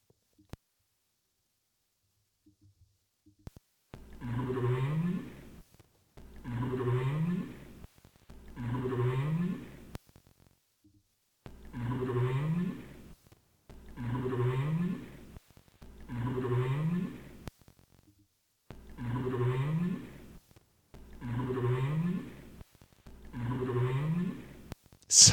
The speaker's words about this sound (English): I never get tired of hearing that sound. This is kind of a unique sound. This is the North Atlantic right whale scream, quote unquote, scream call.